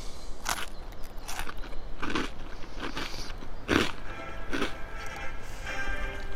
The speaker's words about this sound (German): Moment, ich muss mal eben einen Zwieback runterschlucken.